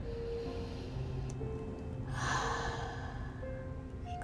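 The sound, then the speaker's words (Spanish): A slow, soft breath drawn in through the nose during a guided relaxation breathing exercise, rising gently to a breathy peak before easing off, heard alone over a low steady background hum. “Una vez más, inhalamos por la nariz”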